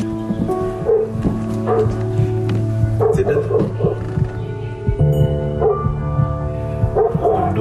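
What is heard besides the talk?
dogs barking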